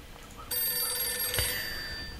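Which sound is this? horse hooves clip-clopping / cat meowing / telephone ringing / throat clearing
telephone ringing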